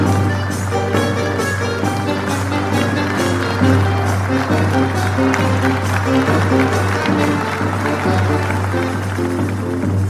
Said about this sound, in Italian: La scena è piaciuta. Vieni con me, andiamo a prenderci gli applausi.